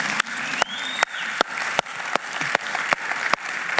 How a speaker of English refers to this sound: We have an amazing pastoral team, an amazing staff. In fact, would you guys give them a huge round of applause? We got it.